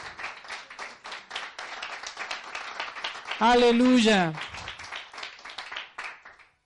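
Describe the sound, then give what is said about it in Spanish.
A church audience claps steadily throughout as a loud round of applause for the Lord, a dense run of sharp, quick claps that keeps a loose beat. Partway through, a single voice calls out loudly over the clapping. “¿Cuánto dan un fuerte aplauso al Señor?”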